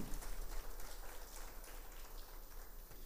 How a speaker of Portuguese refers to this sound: Dá uma salva de palmas a Jesus, que é maravilhoso.